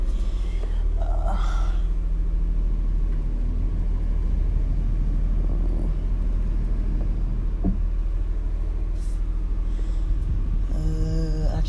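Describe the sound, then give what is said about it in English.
A car engine runs steadily, a deep continuous rumble with a few brief swells and a rising tonal whine near the end as the car is moved back. No one speaks. “I'm going to move the car back actually to get to get the sun a little better angled onto me.”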